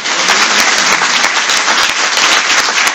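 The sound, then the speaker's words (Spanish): An audience breaks into sustained applause for the name of the Lord, many hands clapping in a dense, steady wash that stays loud and even throughout, with no voices standing out. “¿Por qué no le das un aplauso al nombre del Señor?”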